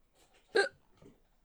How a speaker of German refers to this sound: Oh nein, Schluckauf.